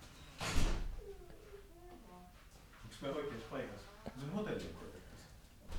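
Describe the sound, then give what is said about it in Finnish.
A locked hotel door is tried but stays shut: a sharp rattle and clunk at the start, then voices talking in Finnish, with another brief knock partway through. “tuo seuraava ovi tuossa. No, se oli lukossa.”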